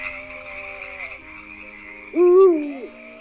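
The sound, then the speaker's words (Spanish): A steady chorus of frogs in a stream croaks under a constant high trill of crickets, with lower calls early on and one loud hooting call of a night bird rising and falling near the end, heard at dusk in a meadow. “Escuchaba los grillos, las ranas en el regato, las aves nocturnas.”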